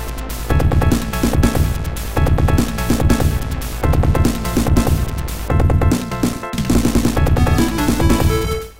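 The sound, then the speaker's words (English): Loud, driving 16-bit game music from the Mega Drive version of a Sonic game's final boss battle, with punchy repeating bass hits and bright synth melody lines layered over a relentless rhythm, playing alone without any talking. “We are entering the final battle, beginning with the Mega Drive version”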